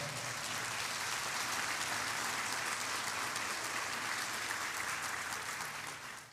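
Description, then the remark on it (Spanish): An audience claps for the Lord during a Spanish-language church sermon, a dense, steady wash of applause that holds at an even level for several seconds before tapering slightly at the end, with no talking over it. “Si usted lo cree, le da palmas al Señor, hermano.”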